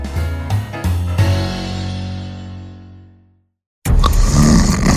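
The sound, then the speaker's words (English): A loud, rasping snore bursts in after a fading, low, droning tone and a moment of silence. No one speaks. “One snores and the other can't sleep.”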